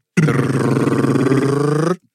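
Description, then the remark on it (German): A voice imitates a drum roll to introduce the evening's topic: a loud, steady rolled growl, sustained for nearly two seconds at an even, low pitch before cutting off abruptly. “Und bitte erquicke uns mit deinem Thema. Trommelwirbel.”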